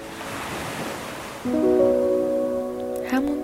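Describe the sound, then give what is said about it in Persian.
Sea waves wash steadily in a continuous soft roar, and about halfway through, sustained calm musical tones enter and hold over the surf. “گوش میدید حس کنید که در مرکز دریا قرار دارید به صدای دریا گوش بدید”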